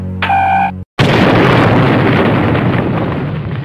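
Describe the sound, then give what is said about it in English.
A short electronic tone cuts off into a beat of silence, then an enormous explosion of the Earth being blown up erupts and roars on as a loud, sustained rumble until the end. “You just blew up the Earth!”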